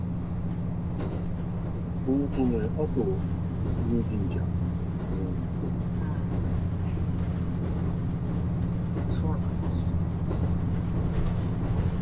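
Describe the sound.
A train runs steadily along the Nemuro Main Line (Hanasaki Line) between Nemuro, Akkeshi and Kushiro, its low, continuous rumble and drone filling the background while people hold a relaxed conversation over it.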